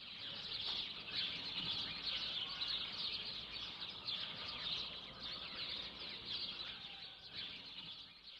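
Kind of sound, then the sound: bird, birds singing at dawn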